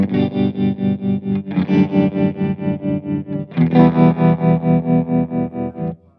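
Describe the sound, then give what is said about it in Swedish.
An electric guitar plays sustained chords through a tremolo effect pedal with some reverb, in the style of a Fender amp's tremolo, the volume throbbing up and down in a steady, fast rhythm. Three chord changes, no talking, ending as the sound cuts off. “Här hör man, för på en, på en Fender så blir det ju så att den choppas liksom i, i, i reverb-sansen.”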